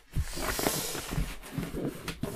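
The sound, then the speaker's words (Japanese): Cardboard handling during an unboxing, with scraping and rustling over a few dull thumps as a heavy brown cardboard box with a second box inside is shifted and pulled about. No one speaks. “これどうやってやろう重さがね、結構重いんですよ。”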